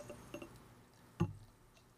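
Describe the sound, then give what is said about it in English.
Liquid is poured into a glass quietly, with a few soft clinks and splashy trickles and one sharper knock of glass near the middle, all faint, with no talking. “That is the sound of Luke pouring something into the glass”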